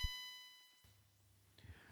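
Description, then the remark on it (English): A single bell ding rings out clearly and fades away over about a second, leaving a faint low hum behind. No one speaks. “Hard leave it, Bell.”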